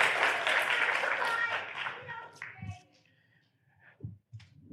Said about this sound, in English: a round of applause, everybody. Thank you.